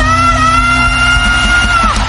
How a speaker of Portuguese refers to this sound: foram gritos de alegria e de dizendo: Para Bolsonaro!